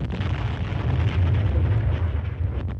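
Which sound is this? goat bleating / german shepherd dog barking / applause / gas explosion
gas explosion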